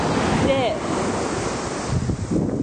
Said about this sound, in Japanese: 今確認したらここ泣き砂なんですね歩ってたら聞こえますか波の音がうるさくて聞こえづらいかもしれないんですけど